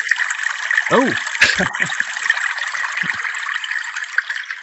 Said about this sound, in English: That just sounds like running water. Amazing. yeah, I think that was supposed to be a soup.